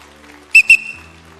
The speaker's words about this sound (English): In an arena filled with thousands of voices, you need to know the one voice. I've got a whistle here. Listen.